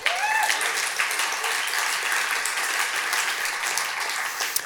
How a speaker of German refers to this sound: Applaus für den Priester Dan.